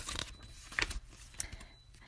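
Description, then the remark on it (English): A papery rustle as a page is turned in a storybook about Little Miss Curious, with a brief crisp flick near the middle and softer crinkling trailing off; no voices. “Well, go on then, turn the page.”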